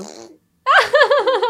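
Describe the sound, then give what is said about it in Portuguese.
A loud raspberry-style fart noise made with the lips, buzzing with a wobbling, pulsing pitch for about a second after a brief silence, preceded by a short voiced sound. “Não foi um pum. Juro. Não, foi com a boca.”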